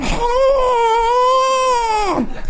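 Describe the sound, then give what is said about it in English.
A person imitates a narwhal call with one long, high, wavering vocal tone, loud, that holds for about two seconds before sliding down in pitch at the end. “So I laid there for a while, uh, and a narwhal came by and went.”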